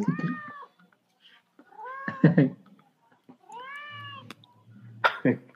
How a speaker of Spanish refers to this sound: Ese es Smith, No, no es Midna. No, es Costal, está aquí. Ah, es, que demasiados gatos.